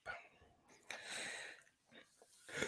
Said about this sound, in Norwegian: Jeg Nei, ja, det kommer det en lang gjesp. Vi har prata altfor lenge nå.